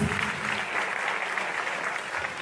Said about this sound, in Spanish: Sí, Ahora sí vamos a brindarles un fuerte aplauso a todos y cada uno de estas personalidades.